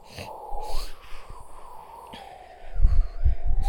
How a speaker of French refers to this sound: Le vent s'active. Bruit du vent.